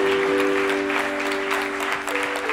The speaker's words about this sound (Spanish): Amén. Amén. Demos un aplauso al Señor. Amén.